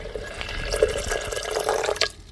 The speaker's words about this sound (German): gießt das Wasser von oben durch, um die Coronaviren herauszufiltern